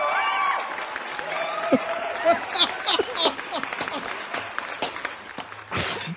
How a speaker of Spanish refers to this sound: Qué aplauso más bueno va a sonar por ahí.